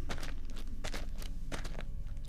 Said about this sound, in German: Du hörst das lustigerweise ein bisschen vorher. Und zwar Schritte, nicht laut, die sich euch nähern.